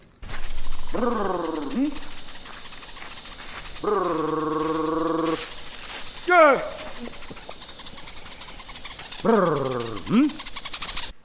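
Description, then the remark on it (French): A hunter's voice calls to birds to guide them to a beehive: a loud, rolling buzz-like trill, then a long steady buzzing hum, followed by a short sharp call and another trill, separated by brief pauses. “ces chasseurs qui sont capables de parler aux oiseaux, ils émettent une sorte de bourdonnement qu'on a, comme on a pu l'entendre tout à l'heure, donc un bourdonnement et un bruit sourd.”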